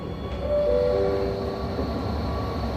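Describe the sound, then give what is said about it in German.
A Berlin M6 tram rolls at Hohenschönhauser Straße on its way toward Marzahn with a steady low rumble, and a high metallic screech of wheels on rail rises as it turns. No one speaks. “Die Tram biegt ab, die Häuser werden höher, aber mit viel Platz dazwischen.”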